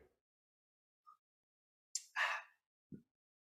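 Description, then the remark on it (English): A short slurping sip of coffee from a mug, a brief airy draw followed by a breathy exhale, then a soft low knock as the mug is set down in otherwise quiet surroundings. “If you if you're listening at home or driving in the car, you can just imagine that I'm drinking it, or you might be able to hear it. Let me have a quick”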